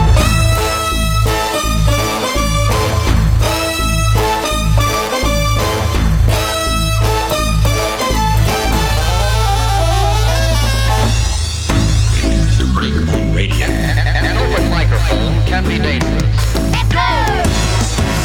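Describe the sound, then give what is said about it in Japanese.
Loud, full band music with a buzzy hand fart noise carrying a wobbling, sliding melody on top, squelchy tones bending up and down throughout. No talking. “手おならの人の音圧が全然違うもんな昨日今日の手オならじゃないもん震心が震えるっていう俺の肛門も震えるような手をならであって手をならじゃないようなその感じですよね”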